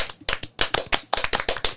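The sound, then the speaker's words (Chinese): A small group claps together on a count of one-two-three to congratulate a colleague on one year at an advertising agency, a quick, slightly uneven burst of sharp, bright slaps, roughly a dozen hits over under two seconds, with no talking. “哎，真的是要先帮你鼓鼓掌，我们来一起鼓掌好不好？”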